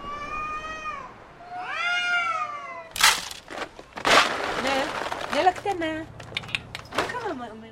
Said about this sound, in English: But unlike the people, a lot of the cats look mangy or sick and the noises they make in the middle of the night. it's like a war zone out there.